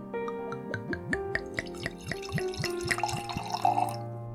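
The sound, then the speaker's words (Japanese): Wine glugs from a freshly opened bottle, poured a little at a time into a glass in quick, rhythmic bursts, each gurgle rising in pitch as the glass fills. Fairly quiet, with no talking. “ちょっとずつ入れていきましょうか。”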